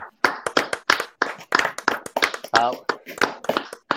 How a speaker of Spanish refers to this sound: yo yo me voy a atrever a pedirle un aplauso a ustedes que me acompañen a darle un aplauso a Baby Chava, brother.